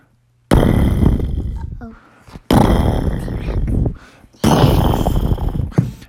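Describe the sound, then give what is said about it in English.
A voice imitates huge, thunderous T. rex footsteps: three loud, rumbling booms, each lasting over a second, with short pauses between them, forceful. “That loud footsteps can only mean one thing. We got T Rexes on the horizon.”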